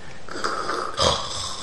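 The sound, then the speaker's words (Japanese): A person vocally imitates loud snoring, a rough rasping breath that builds and then bursts into a harsher snort about two-thirds through, clear with no other talk. “なんかこの人このまま死んでしまうんじゃなかろうかぐらいのいびきああそうだんだんこう上がってなんかすごいらしいっすよ”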